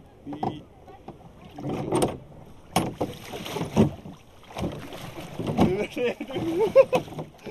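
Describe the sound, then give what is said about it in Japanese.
Hollow knocks, creaks and sloshing water as people clamber into a small rowboat, with wind buffeting the microphone and voices chattering throughout. “大丈夫じゃないよ目がマジだよだって15年ぶりぐらいだもんボート”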